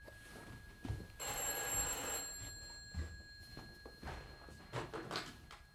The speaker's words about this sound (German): Das Telefon läutet.